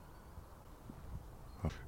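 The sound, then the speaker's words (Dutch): A goshawk gives one short, harsh call that stands out sharply over a quiet, steady background hiss, with a few faint low thumps before it. “De havik.”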